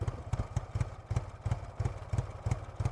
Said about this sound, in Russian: был прерван тарахтением мотоцикла.